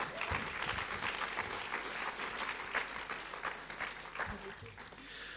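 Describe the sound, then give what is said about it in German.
Steady audience applause fills the whole stretch, a dense crackle of many hands clapping at even loudness, with scattered sharper claps and faint crowd murmur underneath. “Geben wir Ihnen noch einen herzlichen Applaus.”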